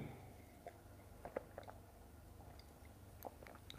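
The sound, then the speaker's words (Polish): Soft chewing of a small mouthful, with irregular moist clicks and smacks spread across a few seconds against a quiet background. “Więc najpierw będzie Najpierw będzie mały gążek, uwaga, taki malutki.”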